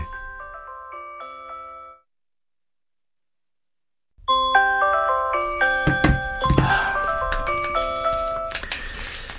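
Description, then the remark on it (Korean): A second mobile phone used for work rings in a mother's workroom with a bright, melodic ringtone, breaks off for a couple of seconds, then starts again fuller and busier, with a few brief clattery bursts mixed in. No one speaks. “네 엄마 작업실에서 들리는 거 맞지?”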